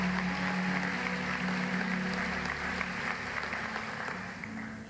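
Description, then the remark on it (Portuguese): A large audience at a church service claps loudly and steadily for several seconds, giving applause to God, a dense wash of applause over a low sustained hum, easing off slightly at the very end. “Quantos podem dar glória a Deus e um aplauso bem forte ao Senhor?”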